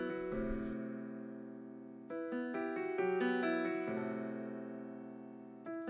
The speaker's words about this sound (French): Est-ce qu'on ne commencerait pas à, écouter cet album … de … et on commence tout naturellement par l'introduction